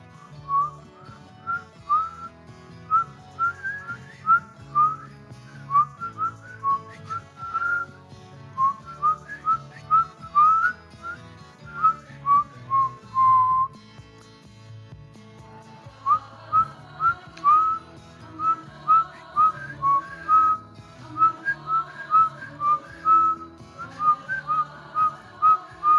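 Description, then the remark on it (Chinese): While breathing out, a person whistles a string of short, wavering mid-pitched tones that imitate the tones of a soft, low musical drone, pausing briefly around the middle before resuming; no one speaks. “现在开始，当你吐气的时候，试着去模仿这个音乐的频率，用吹口哨的方式去模仿它的声音。”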